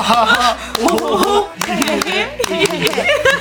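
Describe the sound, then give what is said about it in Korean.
Several people clap a 'happiness clap' together with actors in quick, slightly uneven bursts, while excited voices and laughter carry on over the claps throughout. “배우분들이랑 있으니까 이렇게 행복 박수가 나오네.”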